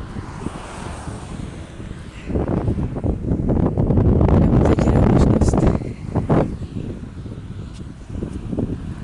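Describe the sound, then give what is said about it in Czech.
Wind buffets a microphone with a steady low rumble, rising into a stronger, gusty roar in the middle before easing back to a softer hiss. “pustím do nahrávky hodně ticha, trochu větru a nějaký skákání za myšma.”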